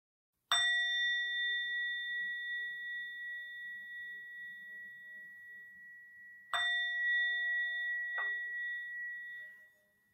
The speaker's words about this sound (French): Donc je vais me servir d'une petite cloche. Et la petite cloche c'est simplement pour signaler le, début de la pratique et puis je sonnerai la cloche à la fin de la pratique.